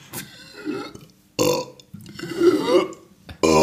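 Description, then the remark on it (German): A short, deliberately forced burp, moderately loud, preceded by some gulping and swallowing noises to pull in air, with no talking. “Also das ist schon so, das ist kein besonders eindrucksvoller Rülpser, aber es ist ein merkbarer.”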